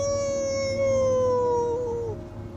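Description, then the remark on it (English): A dog lets out a long, sustained howl, a single drawn-out wolf-like note that slowly slides downward in pitch before fading, fairly loud with no talking. “So the wolf does. You a wolf? come on, wolf. Oh, come on, dog.”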